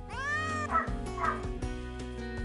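A cat meows repeatedly in drawn-out, wavering cries, fairly loud, with no one talking.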